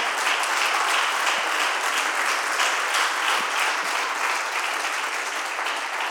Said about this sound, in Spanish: Dale un aplauso fuerte al Señor con todo tu corazón.